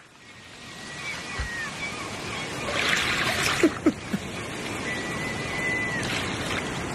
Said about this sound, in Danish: Så starter jeg lige bølgerne igen.